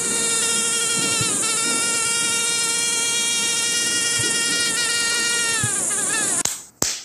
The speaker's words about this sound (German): Das ist das Geräusch, was mich die letzten Nächte oft nicht schlafen ließ. Kleine, blutsaugende Biester, die nachts ihre schlafende Beute heimsuchen. Mücken.